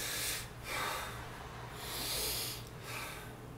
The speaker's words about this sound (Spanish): Respiro profundo, nada más, pero no acelerado, ¿no?